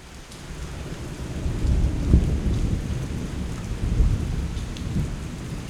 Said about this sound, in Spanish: La lluvia no para y los rayos y truenos tampoco.